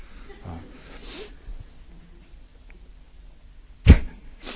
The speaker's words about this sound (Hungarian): Vagy kifújja az orrát.